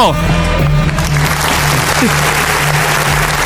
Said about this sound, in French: Et voilà, applaudissez maintenant!